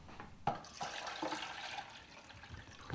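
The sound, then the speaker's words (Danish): Water runs steadily into a kettle, a continuous splashing rush with a small clink near the start, as a woman fills it to make coffee at Østergård, a farm in a tiny hamlet. “Det er hende, der er ved at sætte vand over til kaffe.”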